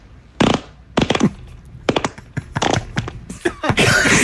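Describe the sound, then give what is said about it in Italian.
Fireworks go off at a wedding in Mantova, Italy, alongside a bottle cork popping: a string of sharp bangs at uneven intervals, some with brief crackle, ending in a longer burst of hissing noise. No one speaks. “Cioè, matrimonio a Mantova i fuochi d'artificio eh, composti, sì, non troppo, pochi, pochi, giusti, sì, quelli giusti con lo stappo della bottiglia.”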